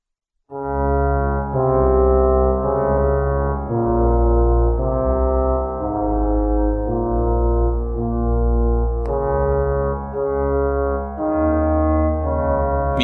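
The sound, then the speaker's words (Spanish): Main title theme music from the 1980 horror film The Shining (El Resplandor): loud, deep, brooding synthesizer tones hold long droning notes that step slowly between pitches, with no voices over it. “Estamos escuchando una canción icónica del año 1980 que es el inicio, o más bien el título principal de la película El Resplandor”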